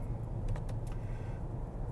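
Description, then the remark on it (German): Steady low rumble of a car cabin on the move during a morning drive to work from Neuss toward Bergisch, near Cologne, Germany: a constant engine and road drone with a few faint clicks or ticks near the start, no voices. “Ja, wie schon gesagt, befinde ich mich gerade im Auto auf dem Weg zur Arbeit,”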